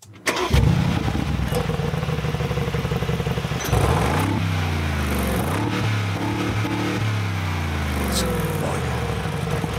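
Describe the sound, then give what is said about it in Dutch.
A Mercedes-AMG G63 engine fires up with a loud burst, settles into a deep, steady rumble, then revs up and down several times in rising and falling sweeps before returning to a throbbing idle. “Hey, ja, de Mercedes AMG G63.”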